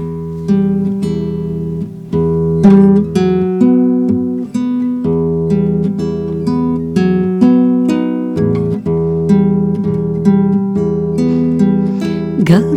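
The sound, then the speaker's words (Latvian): A song played for listeners to reflect on a Gospel reading begins with an instrumental intro of sustained, shifting chords and steady rhythmic accents, moderately loud and continuous with no singing or talking yet. “bet, lai pārdomātu evaņģēlī, tad lai skan dziesma.”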